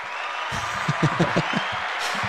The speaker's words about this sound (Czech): Já jsem hledal potlesk na ten. a potlesk je ten, ten žlutý, jestli si ho chci zmáčknout.